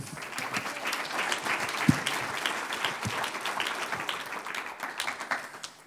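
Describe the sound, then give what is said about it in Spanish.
A crowd bursts into sustained applause for the Lord during a pastor's sermon, many hands clapping densely and steadily for several seconds at a fairly loud, even level, with no voices standing out above it. “Un aplauso al Señor.”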